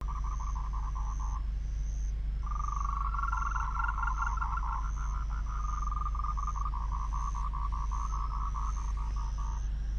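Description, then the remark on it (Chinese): A Moltrecht's tree frog calls in rapid trains of short, pulsing notes around a mid-high pitch, one brief burst then a long sustained series, with a faint high insect trill and low steady hum beneath; no talking. “刚刚呢，我们听到的啊，就是末世树蛙的叫声。”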